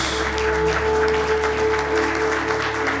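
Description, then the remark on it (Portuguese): A church audience claps steadily throughout in applause to God, a dense and fairly loud wash of many hands, with a low sustained musical tone humming beneath the applause. “Nós aplaudimos o teu nome, Jesus.”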